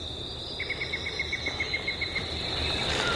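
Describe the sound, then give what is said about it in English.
A yellow-breasted chat calls a quick, even run of about a dozen short whistled toots in the morning, over a steady high-pitched insect drone outdoors. “That's all the same bird. That's the yellow breasted chat, and that is one of my favorites at this time of the year.”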